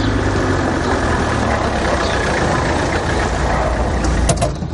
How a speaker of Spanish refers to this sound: Al rato, Pablo parca el coche a un lado de una calle arbolada para dejar a la alumna en su domicilio.